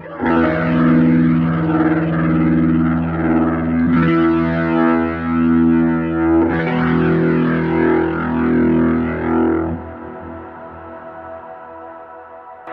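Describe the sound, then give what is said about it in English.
Warm, overdriven electric guitar chords ring out with a swirling, wavering rotary speaker effect, sustained and fairly loud, with new chords struck a few seconds apart before fading into a quieter tail; the drive is set at the middle setting, 5, with definition turned down. “The drive settings are at 5, 5, so middle setting nothing fancy definition is turned down so you get a really warm drive tone and uh, yeah just listen to this now now i think that the rotary is uh, absolutely”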